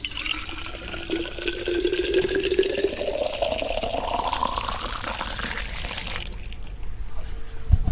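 Boiling water at 100 degrees pours steadily from a tap into a cup at Mohe railway station, its hollow gurgling tone rising in pitch as the cup fills, then the flow cuts off abruptly and only a faint hiss remains.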